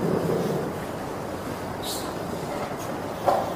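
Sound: flowing river water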